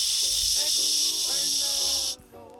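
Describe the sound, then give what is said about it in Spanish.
A steady, loud shushing hiss made by a voice imitating white noise, held for about two seconds before cutting off abruptly, with faint voiced tones running beneath it. “No, y esa weá de que ruido blanco. Y tú lo ponías y todo el rato así. Shh.”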